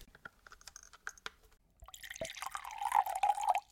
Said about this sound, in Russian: Это все, что я хотела сказать. Давайте выпьем воды за это.